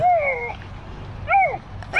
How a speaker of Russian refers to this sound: Это самка или дети? Это теннис. Нет, это, это ягуаренок.